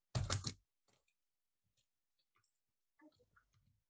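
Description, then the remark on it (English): Typing on a computer keyboard: a loud flurry of keystrokes at the start, then scattered soft taps, and another quick burst of clicks near the end, with no talking. “just so I remember, I'm typing it down.”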